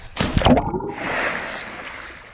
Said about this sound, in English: So this is our way of making a big splash. Cannonball!